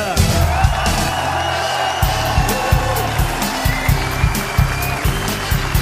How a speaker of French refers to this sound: Ça, c'était pour la partie applaudissements.